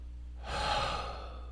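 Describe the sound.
A person imitates a single heavy, weary gasping breath of an exhausted person trying to catch their breath, a drawn-out airy exhale that swells and slowly trails off, with no talking.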